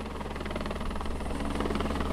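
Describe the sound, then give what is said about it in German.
A helicopter's rotor thumps steadily and loudly with a dense, rumbling engine whine as it flies back down to the valley after setting down material on a trail bend, the rhythmic chopping continuing without pause and no voices present. “Erstaunlich genau hat der Helikopter das Material auf der Wegkehre parkiert. Jetzt fliegt er wieder zurück ins Tal.”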